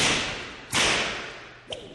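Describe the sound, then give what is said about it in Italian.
A loud, sharp whip crack snaps out with a hissing, ringing tail, followed about a second later by a second, quicker and softer crack. No one speaks. “Resteranno basiti dal vedere che qui non si frusta nessuno e che al massimo viene fatta una contravvenzione.”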